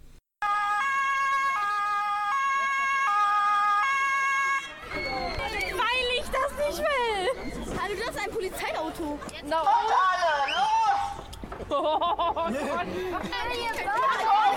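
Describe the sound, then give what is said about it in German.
A loud two-tone police siren alternates between high and low pitches for a few seconds, then stops abruptly and gives way to several people talking over one another. “Wir hören jetzt mal in die Polizei rein, okay?”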